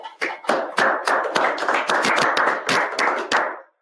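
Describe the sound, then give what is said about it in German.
A crowd breaks into steady applause, dense overlapping hand claps holding at an even loudness for a few seconds before quickly dying away. No one speaks over it. “Schönen Applaus.”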